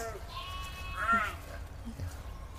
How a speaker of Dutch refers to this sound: Ik zie bruine schapen, ik zie zwarte schapen.